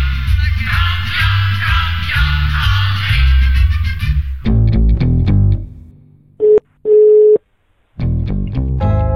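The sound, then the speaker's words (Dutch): Music plays and breaks off, then the ringing tone of an outgoing call to Adrie van Houwelingen sounds: a steady, mid-pitched electronic tone in two short bursts separated by silence, before music returns. No one speaks. “Ik bel eerst maar eens met Adrie van Houwelingen.”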